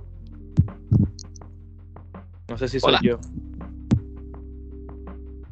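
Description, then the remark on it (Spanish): A faint, steady electrical interference hum on the line drones underneath the whole recording, a low buzzing tone that never changes, while a person speaks briefly over it and a few soft clicks and knocks come through. “A ver, hay, una, hay, una interferencia pequeñita, bien chévere, bien ¿Una, interferencia?”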